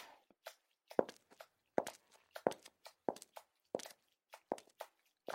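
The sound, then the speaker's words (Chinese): A man's footsteps walking away at a steady, unhurried pace: about eight firm heel strikes with softer scuffs between them, sharp and clear with no voices. “真的走了，你听他的脚步声。”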